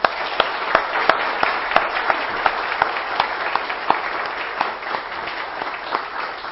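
An audience breaks into applause, a dense wash of many hands clapping with a few sharper, louder claps standing out, holding steady before gradually thinning toward the end.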